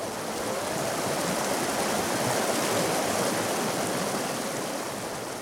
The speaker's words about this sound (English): And the sounds of rivers rushing around rocks.